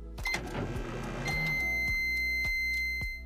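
A microwave oven's clatter and clicks give way to a steady, high electronic beep that holds for nearly two seconds, with faint regular ticking underneath and no talking.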